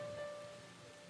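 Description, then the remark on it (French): A soft, steady hiss of rain falling on people gathered to pray, fairly faint and continuous, with a thin tonal hum running underneath and no voices. “Vous voyez l'effort que vous faites dans la pluie là.”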